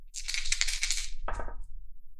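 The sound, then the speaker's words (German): Two six-sided dice rattle and tumble in a fast, bright clatter lasting about a second, followed by a brief, duller knock as they come to rest. No voices are heard. “Einfach wieder 2D6.”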